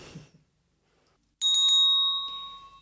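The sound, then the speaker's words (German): A presiding officer's bell rings out loud in a state parliament plenary session to call for quiet: a quick burst of three strikes, then a bright metallic tone that lingers and slowly fades. A brief bit of voice precedes it. “Ja, so ähnlich klingt das, wenn Sie im Plenum für Ruhe sorgen müssen.”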